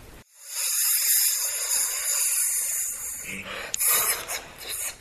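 snake hissing

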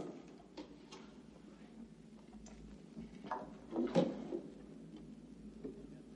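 drawer being opened

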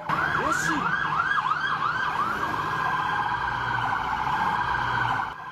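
police car sirens

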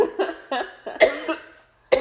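coughing fit

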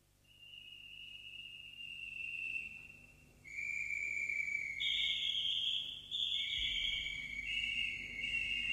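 nightingales singing

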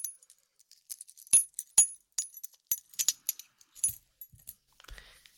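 keys jingling

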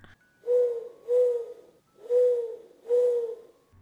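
owl hooting sound effect

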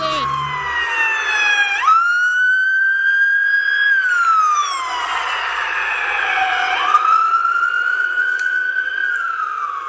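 police car siren

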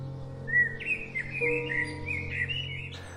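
birds chirping and singing

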